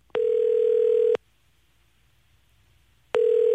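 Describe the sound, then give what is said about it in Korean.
A phone ringback tone as a radio show calls a listener: a steady, fairly low electronic hum sounds for about a second, falls silent for two seconds, then starts again. No one speaks. “자, 전화 가고 있습니다.”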